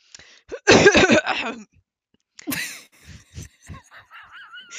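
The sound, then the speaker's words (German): A loud, raspy throat clearing bursts out in several rough, rapid pulses, then after a brief pause come softer breathy huffs and squeaky vocal noises. “Was war das denn für ein Räusper?”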